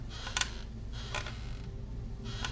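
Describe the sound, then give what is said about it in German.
Wooden floorboards in a house creak in a few slow, drawn-out groans spaced apart, moderately loud over a low background rumble. “Das Knarzen von Holzdielen.”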